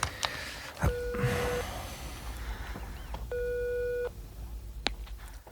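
A mobile phone's ringback tone plays over its loudspeaker after a number is dialed: two steady electronic purrs, each under a second long and spaced well apart, sounding slightly tinny against faint background noise.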